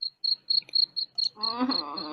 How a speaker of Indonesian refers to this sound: Waduh, waduh, waduh, ada bunyi jangkrik nih.